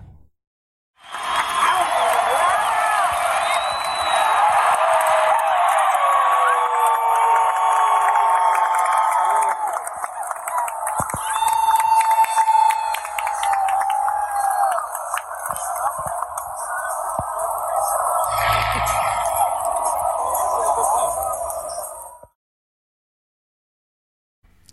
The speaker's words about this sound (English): But, you know, people are standing for that last pitch. They know McGee's got two strikes and, you know, the, the crowd is ready to just cheer on, on the win.